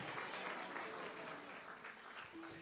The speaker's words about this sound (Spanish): Vamos, a alguien que le dé un aplauso al Señor.